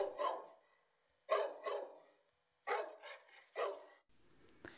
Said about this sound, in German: weit in der Ferne, so fern, dass es außer der Welt zu sein schien, war dann und wann das Gebell eines Hundes zu hören.